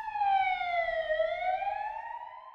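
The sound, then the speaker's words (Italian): An ambulance siren wails loudly, its tone sliding slowly down and then rising again, with a low rumble of traffic beneath it. “L'ambulanza non fa neppure in tempo ad arrivare, che lui è già morto.”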